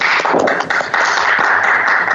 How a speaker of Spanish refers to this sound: Un fuerte aplauso a los que están presentes, por favor.